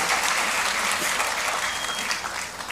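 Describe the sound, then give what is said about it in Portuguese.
A church audience applauds steadily for a young man who distributes leaflets, a dense wash of many hands clapping at an even, sustained loudness that eases slightly toward the end, with no voices standing out. “Deus, salva de palmas para esse rapaz.”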